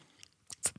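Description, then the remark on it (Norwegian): A few quick, wet mouth clicks, alone, made by a voice imitating the soft blink of an eye. The last two are the sharpest. “Skal jeg lage blunkelyden med munnen?”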